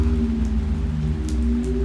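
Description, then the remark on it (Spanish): Steady rain falling continuously, a dense even patter with a low rumbling undertone, moderately loud, with no voices, while lightning flashes one after another. “Había sido una pesadilla, aunque no del todo, pues la lluvia era real. Aún caía”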